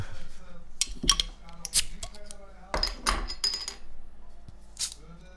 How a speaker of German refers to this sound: Oh, ist auch gezischt, obwohl es bei dir ein Drehverschluss ist.